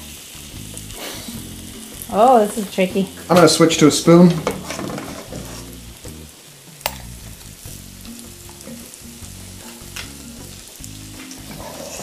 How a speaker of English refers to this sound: If you're just doing it in cast iron, you could just put a little bit of oil or butter into the cast iron pan and boom, you're done. The batter goes into the individual Hear it already sizzling? Yeah.